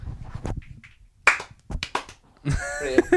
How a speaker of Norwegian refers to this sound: Og så bommer man alltid litt på klappet, så når den delen kommer, så hører du sånn